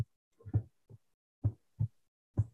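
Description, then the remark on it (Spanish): Deep, muffled heartbeat thumps pulse in a steady lub-dub rhythm, about five beats, moderately loud and alone with no talking, used as a sound effect in a video soundtrack. “Están hasta los latidos ambientando, mira.”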